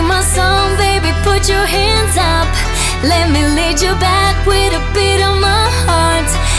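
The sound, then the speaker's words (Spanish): Opening of a new electronic dance hit by a Spanish DJ plays loud and continuous, with a heavy, steady bass underneath and a bright, gliding melodic lead over the top. “Este disjockey español es uno de los más afamados en todo el mundo y acaba de lanzar un nuevo éxito, que suena así.”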